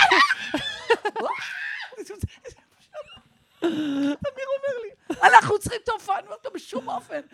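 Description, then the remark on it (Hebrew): A voice imitates screeching monkeys with a burst of loud, high, harmonic shrieks and hoots, broken by short pauses, energetic throughout. “תקשיב, צרחות של קופים.”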